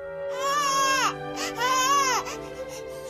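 A newborn baby cries in two loud, wailing bursts, each rising and falling in pitch with a short gasp between, with no talking. The baby is one of those born in the K1 area of Ho Chi Minh City during the COVID-19 epidemic.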